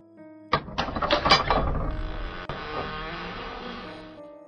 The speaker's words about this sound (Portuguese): Ao abrir a porta, Célia se depara com algo assustador.